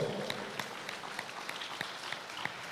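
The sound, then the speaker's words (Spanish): An audience applauds the Lord in a steady, dense wash of clapping, with a few sharper individual claps standing out over the noisy, sustained texture, fairly soft overall. “Dar un aplauso al Señor por esto.”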